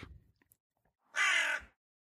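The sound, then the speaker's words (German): A raven about 50 centimetres long, perched a few metres overhead, gives one loud, harsh, raspy caw lasting about half a second, with near silence before and after. “Einige Meter über ihr saß ein Rabe und schaute sie neugierig an.”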